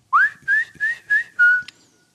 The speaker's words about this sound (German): Und äh, was pfeift denn da bei dir? Ich höre nix.